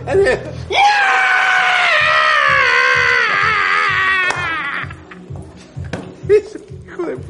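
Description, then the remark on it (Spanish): A person at a bar imitates a pig's squeal with one long, loud, high-pitched shriek held for about three and a half seconds. It is followed by quieter scattered sounds and a few short vocal bursts. “es, un chancho.”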